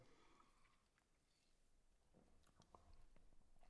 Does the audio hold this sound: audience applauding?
no